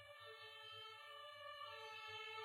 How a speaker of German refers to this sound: es war gerade äh, Kranken-Sirene